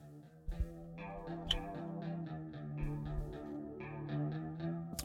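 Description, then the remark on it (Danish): A rock guitar riff plays with a shimmering, warbling chorus effect, its notes picked in a steady repeating pattern over a low bass line, with no voices. “Og nu sender du lige uh, … her, så vi lige får”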